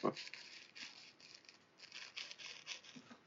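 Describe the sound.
Sheets of paper rustle and crinkle in a run of soft, uneven bursts that continue for a few seconds, with a brief voice sound at the very start.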